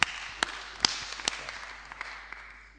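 An audience applauds steadily for a few seconds, a dense wash of clapping with a few sharper individual claps standing out, fairly soft.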